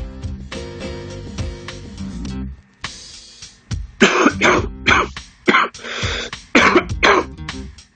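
A person clears their throat with a drawn-out, rumbling rasp, then breaks into a fit of harsh coughs, several sharp bursts in quick, uneven succession.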